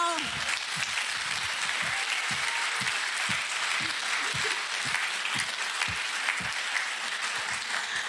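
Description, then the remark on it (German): Sustained applause from a church audience for their pastor's 27th birthday, a dense steady wash of many hands clapping for the full length, fairly loud and even, with a few brighter individual claps standing out. “Und wir müssen jetzt nicht Happy Birthday singen, aber mal einen dicken, fetten Applaus einfach nur.”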